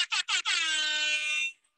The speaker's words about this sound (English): Always a fan of the air horn.